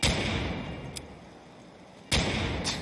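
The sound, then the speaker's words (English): Slow shots from an advanced two-two-three pistol in a video game, fired by repeated clicking without reloading: a few loud booming blasts spaced roughly a second apart, each leaving a noisy rumbling tail, with no talking. “It's it's so it fires really slow. Like I'm just gonna fire and keep clicking, and you'll hear how.”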